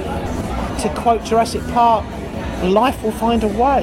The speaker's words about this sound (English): A sort of a nightclub has grown up around us here,